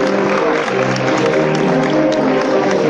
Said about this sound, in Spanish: Ese aplauso del público tras el solo de la banda.